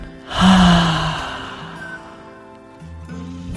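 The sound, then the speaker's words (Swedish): A single deep, breathy exhale through the mouth with a spoken 'ha', part of a relaxation breathing exercise. It is loud at first, then trails off gradually over a few seconds, with soft sustained tones humming underneath. “Andas ut genom munnen och säg ha.”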